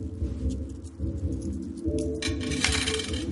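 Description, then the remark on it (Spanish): Coins clinking against one another as a woman counts them out at home, seated at a table with 10 and 20 banknotes on it, a steady run of small metallic taps and chinks over a low, continuous rumble. “cuenta monedas en su casa sentada frente a la mesa sobre la que hay billetes de 10 y 20.”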